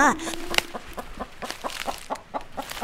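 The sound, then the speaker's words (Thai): A hen clucks repeatedly as it scratches about, in a steady, bobbing rhythm of short throaty notes, opening with a slightly longer call, with no other sounds around it. “แม่ไก่ได้ร้องกุ๊กกุ๊กกุ๊กและคุยเขี่ยไปมา”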